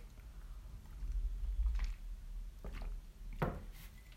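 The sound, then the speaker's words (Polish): A quiet sip from a drink: soft mouth and swallowing noises with a couple of brief handling knocks near the end, over a low background rumble and no talking. “Dobra, łyk.”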